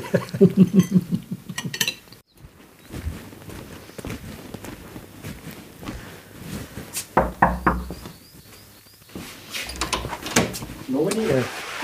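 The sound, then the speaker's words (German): A few sharp knocks on a door stand out among scattered household clatter and movement, with indistinct voices talking throughout. “ja, dann freuen wir uns jetzt, wenn es klopft.”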